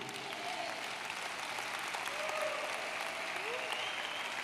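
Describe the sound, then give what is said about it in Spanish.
An audience applauds steadily, a dense wash of many hands clapping at an even level, with faint voices and a few brief tonal sounds woven through the noise. “Dale un poquito el aplauso para que me entienda.”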